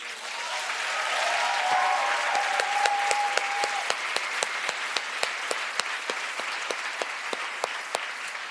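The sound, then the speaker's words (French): An audience breaks into sustained applause for getting the law adopted on 12 July 2023, a dense wash of clapping that holds steady for several seconds, with a few sharper individual claps standing out and a brief whistle or cheer early on. “C'est incroyable, on peut l'applaudir.”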